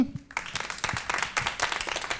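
An audience bursts into applause, a dense, steady patter of many hands clapping at once after a brief quiet start, sustained at moderate loudness throughout.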